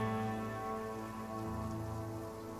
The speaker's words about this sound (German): Ich gehe mal, geh mal davon aus, dass es draußen regnet, wie immer in Blutstadt. Ja, es regnet immer. Es regnet.